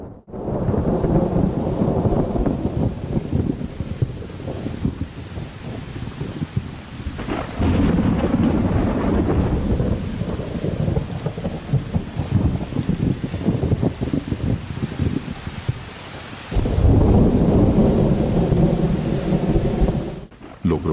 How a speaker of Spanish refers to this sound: En medio de un denso banco de nubes y una fuerte tormenta eléctrica